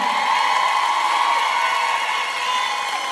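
A crowd cheers and applauds in a steady, loud roar of mixed voices and clapping that holds evenly for a few seconds, with no single voice standing out.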